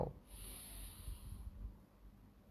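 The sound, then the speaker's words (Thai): A long, steady inhalation through the nose during a lung breathing exercise, a soft airy hiss with a brief sharper rush at the start, heard alone without any talking. “พร้อมการ หายใจเข้าทางจมูกครับ เป่าปากหายใจออกหายใจเข้าทางจมูก เป่าปาก หายใจเข้า”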